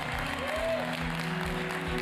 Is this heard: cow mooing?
no